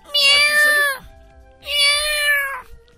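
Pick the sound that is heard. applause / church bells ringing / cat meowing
cat meowing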